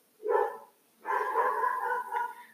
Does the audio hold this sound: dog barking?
yes